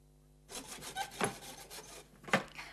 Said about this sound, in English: Oh, he's hammering again.